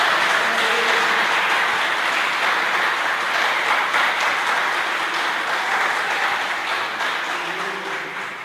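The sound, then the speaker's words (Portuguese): A church audience applauds the Lord for a group of girls, a dense, sustained wash of many hands clapping that holds strong for several seconds before gradually tapering off, with faint voices mixed in. “Você pode aplaudir ao Senhor para essas meninas, em nome de Jesus?”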